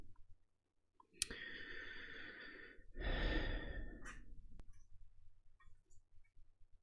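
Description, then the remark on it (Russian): Soft, gritty rustling from a small granule-filled toy mouse as a cat plays with it, coming in two close bursts of shuffling noise with a faint click between, quiet with no talking. “Слышите, шуршит? Это там такая сыпучая игрушка, мышка.”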